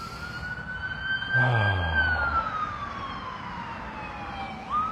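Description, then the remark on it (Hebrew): An emergency vehicle siren wails steadily as it passes, its tone sliding slowly downward, with a low rumble of traffic swelling briefly in the middle and faint background noise throughout. “סירנה זה זמן טוב לנשום, בדיוק על הפואנטה, איזה יופי.”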